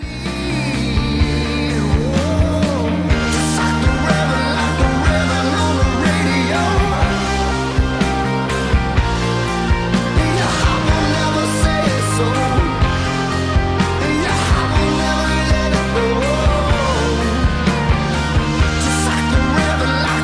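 A full-band rock song plays loud and steady throughout, with driving drums, sustained guitars and a sung melody. No one talks over it.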